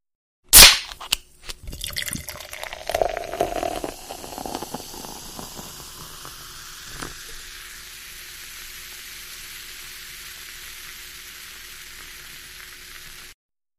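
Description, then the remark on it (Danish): A sharp crack of a guaraná soda can snapping open, then a few seconds of fizzy pouring into a glass, settling into a soft, steady carbonated hiss. Clear, with no voices. “Ja, men det var jo en, en, en dejlig øh, lyd her af, af en, en guaraná, som blev helt op i, i glas der.”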